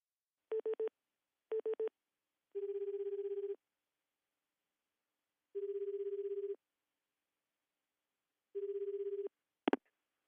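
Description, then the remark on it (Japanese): A few quick dialing beeps, then three steady ringback tones spaced a few seconds apart on a phone line, ending with a sharp click as the call is picked up: a phone call to a waterfall campground in Kihō Town, Mie Prefecture, Japan. “どんな施設で、なぜ秋が最高なのか、キャンプ場の方に電話で伺いたいと思います。”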